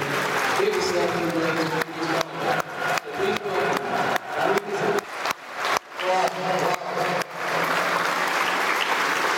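A large stadium crowd gives a loud, customary round of applause during the pre-match speech, with a stretch of strong rhythmic clapping in unison through the middle before it settles back into a dense, steady wash of claps and cheering.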